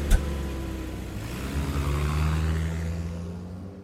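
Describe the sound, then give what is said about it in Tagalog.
A jeep's engine rumbles and revs up steadily as the driver pulls away, a low droning growl with a brief knock at the start. “Dahil doon ay umalis na lang kaagad ako sa kapinaandarang jeep.”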